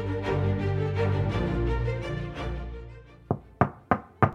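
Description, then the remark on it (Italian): Soft music fades out, then four firm knocks ring out in quick succession as a girl raps on the little house at the entrance of a shooting club, fairly loud with a brief resonant decay after each. “Il giorno dopo bussa alla casetta all'entrata del circolo di tiro.”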